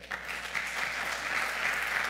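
Sustained applause from a crowd, a dense steady wash of clapping that holds at an even, fairly loud level throughout with no voices standing out.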